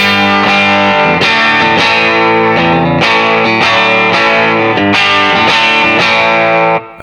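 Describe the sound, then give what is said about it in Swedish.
An electric guitar played through a pedal set to a low-gain, almost clean boost, with loud, sustained chords struck about every second, each ringing out with a slightly gritty edge. “Så nu har jag dragit ner gainen ganska mycket, så det blir nästan som eh, clean boost-aktigt.”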